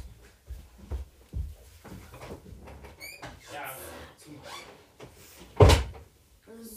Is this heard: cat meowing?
no